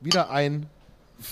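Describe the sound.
A man speaks briefly, then a short, bright clink of beer glasses of draught Guinness rings out near the end in a toast, moderately loud.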